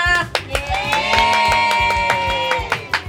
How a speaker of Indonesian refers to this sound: tepuk tangan dong penontonnya